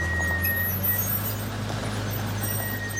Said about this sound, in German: Auf der Verladerampe, auf der die Gebirgsjäger ihre Schneefahrzeuge auf einen Zug manövrieren,